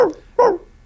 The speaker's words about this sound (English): If y'all can hear that dog barking, I'm sorry.